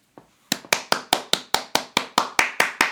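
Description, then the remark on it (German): A quick, steady run of about a dozen sharp hand claps at an even brisk pace, loud and crisp, following one faint clap at the start, made to sync a test recording. No one speaks. “Kannst du, kannst du einmal klatschen?”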